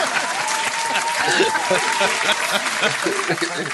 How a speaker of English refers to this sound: Applaud this man